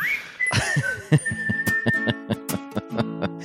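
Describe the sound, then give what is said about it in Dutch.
A short musical jingle led by a bright whistled melody over a plucked, rhythmic backing, with steady percussive beats; loud, no talking over it. “Ik zit gewoon door mijn jingle heen te lachen.”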